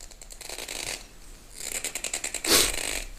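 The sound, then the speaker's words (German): Rapid plastic clicking and scraping as someone twists and struggles to open a bottle cap, ending in a brief louder crackle, with no talking. “Das wird man jetzt übrigens sehr hören, wie du deine Flasche da versuchst zu öffnen.”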